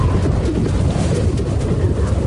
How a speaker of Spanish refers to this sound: Así está soplando el viento ya en la costa de La Coruña